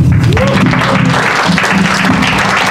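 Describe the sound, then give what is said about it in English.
A crowd claps steadily, a dense patter of many hands at moderate loudness, with a faint murmur of voices mixed in underneath. “Can I get a round of applause for Kira?”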